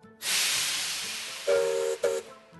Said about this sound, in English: But next week, there'll be a grinding of the gears as I ask you for the mightiest mechanical marvel in the east of England. It could be the locomotives on the North Norfolk Poppy Line.